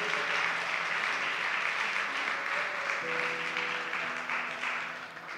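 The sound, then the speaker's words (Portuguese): An audience applauds for Christ in welcome of visitors, steadily for about five seconds, a dense wash of clapping with faint sustained tones underneath, fading slightly at the end. “Dê um aplauso a Cristo por a vida deles.”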